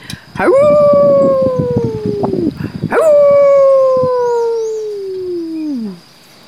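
dog howling

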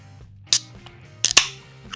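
beer bottle being opened

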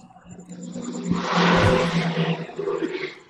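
street traffic

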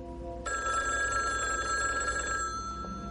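telephone ringing

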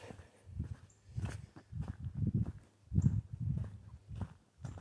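horses walking

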